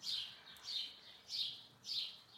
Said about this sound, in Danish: Og jeg var sådan, øjeblik, jeg er faktisk nødt til at lige lukke vinduet, for nu piber fuglene ja, det er også, meget. Det er sådan en rimelig mærkelig soundtrack til den her samtale.